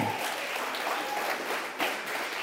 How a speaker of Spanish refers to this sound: ¿Cuántos creen conmigo esta palabra? Junte sus palmas.